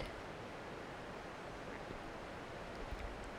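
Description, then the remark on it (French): A steady, continuous rush of the Sorgue river flowing downstream toward L'Isle-sur-la-Sorgue near its source at Fontaine de Vaucluse, an even hissing wash with no breaks, heard fairly softly and with no voices. “Ses cheveux végétaux qui vont avec le courant vers l'aval, vers l'île sur la Sorgue.”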